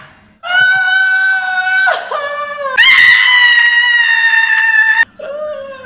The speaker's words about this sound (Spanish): Yo practicaba diferentes tipos de gritos.